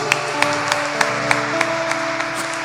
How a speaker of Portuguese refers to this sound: aleluia, aplauda Jesus.